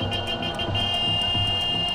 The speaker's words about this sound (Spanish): Un verdadero caos vial es el que se vive diariamente en cruces donde no hay semáforos, nadie que dirija el tránsito, algunos tratando de ayudar de manera improvisada y otros perdiendo la paciencia.